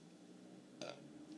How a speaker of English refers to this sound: I have to burp. No, I don't. Do I?